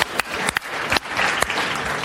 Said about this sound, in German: Bravo, ist ein Applaus wert.